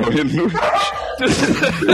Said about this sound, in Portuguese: o Jorge, o Jorge ele fez uma participação aqui, ele deu um latido e falou: sim, eu, vou, vou colocar até no nome, Fit Jorge, porque ele participou, tá ligado?